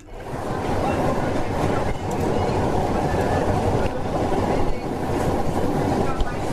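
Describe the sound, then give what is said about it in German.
A steam locomotive starting off and working hard, its exhaust beats blurring into a loud, dense, continuous rumbling roar with a few brief dips along the way. “Man sagte mir gerade, es wäre ein herrliches Staccato der Auspuffschläge zu hören.”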